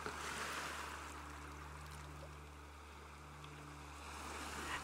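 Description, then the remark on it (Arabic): Waves wash steadily onto a shore in a broad, hissing roar that swells near the start and end, with a low, steady hum running beneath. “الموج بيتكسر على الشط وبيبقى لونه أبيض وبيرجع يتسحب تاني جوه البحر مع كل موجة جسمك بيستسلم للنوم”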